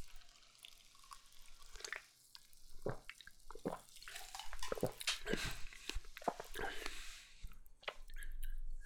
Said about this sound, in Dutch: Misschien heb ik het mis. Ik ga eens een slokje nemen.